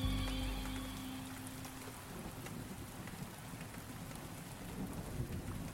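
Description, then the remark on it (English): Steady, heavy rain pours down in a dense hiss, with a deep rumble of thunder rolling low at the start before the downpour carries on alone, loud. “The drab skies became the backdrop for horrible recollections, cold memories descending as surely as the February rain driven by forces capable of far more than breaking branches.”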